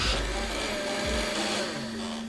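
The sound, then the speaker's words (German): A discounter's Thermomix-copy kitchen machine runs steadily, a loud continuous motor whir with a faint tonal hum, with no talking over it. “Ja, sogar dein Mixer oder dein Küchengerät kann mithören.”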